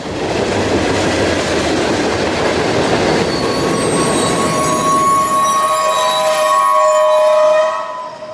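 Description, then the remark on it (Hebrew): A passenger train rolls along the rails with a loud, steady rumble, its wheels squealing in high, sustained tones that grow stronger before the sound cuts off near the end. “לאחר שכל רכבת מסיימת את נסיעתה האחרונה לאותו יום, היא חוזרת לאחד ממתחמי התחזוקה בבאר שבע, לוד או חיפה.”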